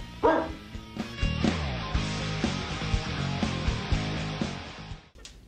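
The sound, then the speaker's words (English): A single sharp bark from Ubu the dog rings out near the start, loud, with a steady bed of music continuing underneath and carrying on after it. “Sit, Ubu, sit. Good dog.”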